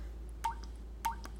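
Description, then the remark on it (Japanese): Two clear water-drop plinks as water is dropped into a filled cup in a kitchen, recorded into a sampler, each a short bright splash with a quick rising ring, spaced about half a second apart over a faint steady hum. “これはあの僕がキッチンでコップに水張ってこう水をこう落とした時の音をこれサンプラーなんで録音できるんですよ”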